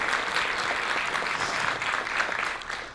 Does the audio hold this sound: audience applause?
yes